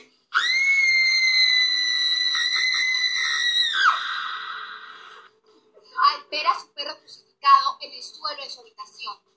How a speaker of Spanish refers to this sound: Entonces, dio un grito de terror.